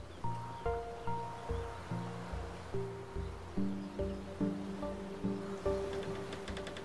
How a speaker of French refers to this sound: Leurs feuilles, aux couleurs automnales, sont elles aussi bercées par le vent doux et chaud.